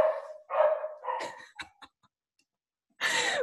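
A pet dog barks in a quick run of loud, sharp barks with a few shorter yips, goes quiet for a moment, then lets out one more bark. No one speaks.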